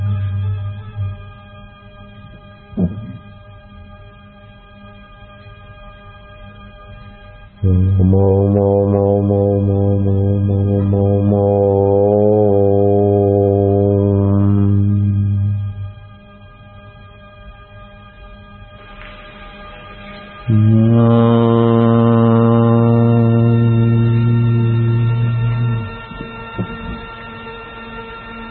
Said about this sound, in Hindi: दस मिनट ये ध्वनि करे पंद्रह मिनट ध्वनि करे ओम ओम ओम ओम ओम